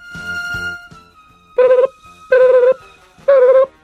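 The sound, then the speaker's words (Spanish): Three loud, steady electronic telephone call tones as a listener's call is put on air during a call-in broadcast, each lasting about a third of a second with short gaps between them, following a brief stretch of quieter, murmuring sound. “Vámonos con llamada al aire, síganme, buenas tardes.”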